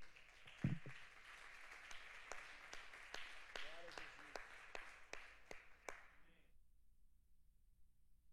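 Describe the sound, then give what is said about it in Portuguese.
An audience at a church service applauds God with dense, steady clapping and scattered voices calling out, sustained for about six seconds before cutting off abruptly into silence. “Você pode aplaudir a Ele?”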